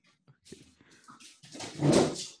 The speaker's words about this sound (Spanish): Espera espérame tantito porque mi perrito está haciendo ruidos y lo voy a sacar.